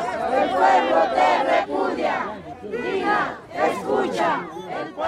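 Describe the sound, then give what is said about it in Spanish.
A large protest march crowd in Juliaca on 9 February 2023 chants and shouts in unison, loud, with many voices rising and falling in rhythmic bursts throughout, commemorating deaths and demanding justice. “Bueno, el día 9 de febrero del 2023 hubo una gran marcha.”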